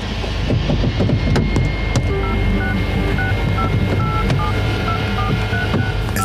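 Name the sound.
telephone keypad dialing tones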